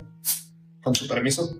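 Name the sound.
beer being opened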